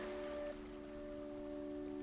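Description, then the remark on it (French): A soft, steady wash of ocean surf, waves calmly rolling in and drawing back, hushed and continuous, with a faint sustained tonal hum lying beneath the watery noise. “Ces vagues qui s'approchent tranquillement, puis se retirent en créant une symphonie très apaisante.”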